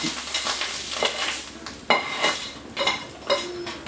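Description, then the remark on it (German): Mushrooms are transferred into a tall hot pan and sizzle steadily, with a few sharp scraping clatters of a utensil against metal as they are pushed and stirred in. Fairly loud, no voices. “Ich fülle die jetzt auch in die hohe Pfanne um.”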